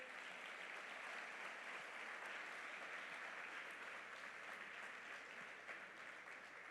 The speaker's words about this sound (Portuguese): Glória a Deus, aplaudo o nome do Senhor.